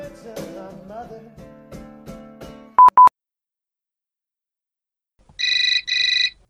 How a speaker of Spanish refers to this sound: El sonido del teléfono móvil lo sobresaltó.